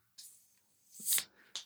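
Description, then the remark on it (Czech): A beer being opened: a sharp click, then a loud airy hiss of escaping gas swelling and fading, followed by a brief final snap. No one speaks. “Ale jsme tady, uh, já si otevřu pivo”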